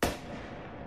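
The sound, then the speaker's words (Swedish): A single sharp pistol gunshot cracks out loud, fired by a gunman shooting himself in the head in a car after crashing into a parked car, followed by a rumbling, reverberant tail that lingers and slowly fades. No voices are heard. “ögonvittnen som är på plats när han har kört in i den här parkerade bilen eh, hör ett, ett enda skott.”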